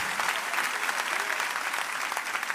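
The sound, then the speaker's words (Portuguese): An audience applauds the Lord for a great deliverance the day before: steady, sustained applause, a dense wash of many hands clapping at once with no single claps standing out, holding at an even level throughout with no voices audible. “Você pode glorificar a Deus, você pode aplaudir o Senhor pelo grande livramento que o Senhor nos deu no dia de ontem.”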